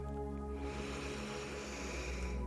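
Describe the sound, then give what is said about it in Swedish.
A long, deep breath drawn in during a breathing exercise, a soft airy hiss that swells after a brief pause and holds steady for about two seconds over a low, constant hum. Nobody speaks. “Andas in.”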